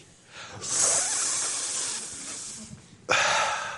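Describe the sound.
A person forcefully sucks in air with a long, loud breathy hiss lasting a couple of seconds, then a second sharp hissing draw of breath, mimicking a strong suction sound.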